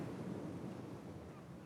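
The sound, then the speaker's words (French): Ocean waves wash steadily onto a shore, a continuous full-bodied roar of surf with no pauses. A faint wind rumble sits underneath, and no one speaks. “T'entends les vagues”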